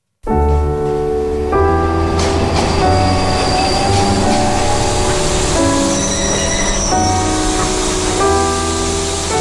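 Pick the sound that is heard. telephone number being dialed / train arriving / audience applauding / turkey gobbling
train arriving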